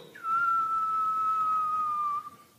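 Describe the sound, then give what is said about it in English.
A single sustained whistle, clear and fairly loud, holding a steady pitch that slowly sinks over about two seconds, mimicking a rock thrown as far as possible sailing through the air, then cutting off. “It used to it used to be throw rocks as far as you could throw them. Right? Like you can't see where it lands, but you can hear it go.”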